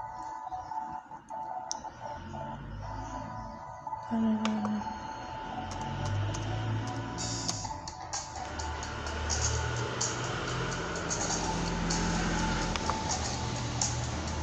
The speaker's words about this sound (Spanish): que se escuchen los camiones.